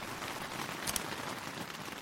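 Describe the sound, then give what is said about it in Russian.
Steady rain falls outdoors in windy weather in a continuous, even hiss, with a couple of brief crisper spatters near the middle and no voices. “Бля, это такой дождь, это не так быстро и просто, тем более ветер еще хуярит.”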